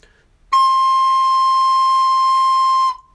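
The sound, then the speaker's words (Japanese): A recorder sounds a single high C (do), the last of the notes G, A, B, high C played one at a time, held steady and fairly loud for a little over two seconds with a clear, bright tone, then stops cleanly. No voices are heard. “はい、次ど。”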